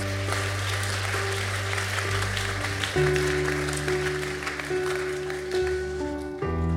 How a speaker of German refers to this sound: Amen. Amen. Amen. Halleluja. Gib mal einen Applaus.